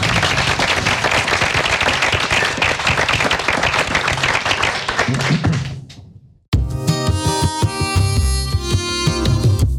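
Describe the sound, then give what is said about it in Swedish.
A dense burst of applause from the audience listening in the room, clapping steadily for about six seconds as they are thanked, fading out briefly before music with a steady beat begins and continues to the end. “Då säger vi stort tack och kanske kan man få med en applåd på, eh, utan att det skorrar för mycket.”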